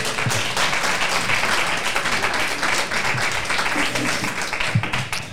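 An audience applauds steadily for several seconds, a dense, continuous wash of many hands clapping at an even loudness with no pause, welcoming a guest called up to speak.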